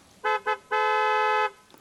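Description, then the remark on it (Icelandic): A loud car horn on a side street by Times Square honks twice in quick short beeps, then blares in one long sustained blast, dominant with nothing else audible. “og bara það er samtalið og nýbyrjað að kemur svona mjög há bílflöta”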